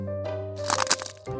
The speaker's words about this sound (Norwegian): Oi, hva var det? Det var lyden av lesekoden som knakk.